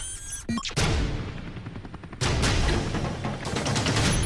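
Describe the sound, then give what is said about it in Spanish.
Gun salute volleys fired in honor of Prince Philip, Duke of Edinburgh, at his funeral with military honors: two loud, sharp rifle volleys, each followed by a long, rumbling roar of echo and noise that fills the pauses, with no voices heard. “Salvas en su honor, un coche fúnebre diseñado por él mismo, un funeral con honores militares, pero no de Estado.”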